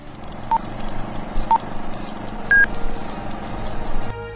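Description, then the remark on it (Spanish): Three short cell phone keypad tones sound about a second apart, the last one higher and slightly longer, over a steady background hum. “Ok, ok. Robert, tu celular.”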